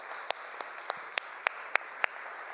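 A crowd applauds steadily for women who held a bridge-building activity, a dense wash of clapping with a few sharper claps punching through at a regular beat. No one speaks over it.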